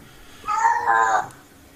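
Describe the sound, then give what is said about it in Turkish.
A male cat lets out one drawn-out, wavering yowl lasting under a second, loud and mid-pitched with a slight dip in the middle, then silence. No one talks. “biz buradan nehir bağır dedik, kedi bağırıyor orada.”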